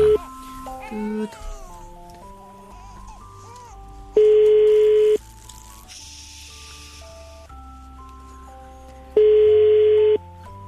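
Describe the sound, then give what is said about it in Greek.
A phone line rings twice with no answer as a radio show calls a listener, each ring a steady, loud mid-pitched tone lasting about a second, spaced several seconds apart, over a soft bed of background music. “Μαρία δεν ακούω να το σηκώνει η Ράνια.”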